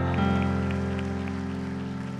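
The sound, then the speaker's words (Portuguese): A church audience applauds God in a dense, steady wash of clapping, heard over sustained keyboard tones that hold underneath throughout. “Eu vou pedir para que a bispa nacional pode aplaudir ao Deus.”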